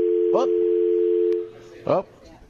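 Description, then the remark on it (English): After a cell phone call drops, a steady, loud telephone dial tone hums for about a second and a half, then cuts off abruptly. Brief bits of a voice speak over it and just after it stops. “just dropped off, but that's the uh, danger of calling it on your cell phone.”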